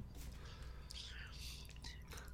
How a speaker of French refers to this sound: Désolé, j'étais en train de boire une gorgée d'eau.